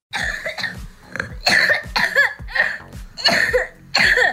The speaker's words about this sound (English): We've all got this cough that just will not go away. We've had it since the beginning of November. It's kind of tamed down a little bit, but it's still very much there. Everybody's coughing.